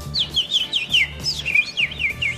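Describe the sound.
A person whistles a bird imitation: a run of quick, high chirping trills repeated in a steady rhythm, fairly loud, with no talking.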